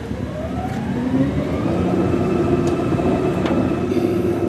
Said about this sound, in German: Die Entsorgungsbetriebe Essen haben einen neuen Müllwagen und bei dem ist kaum was zu hören.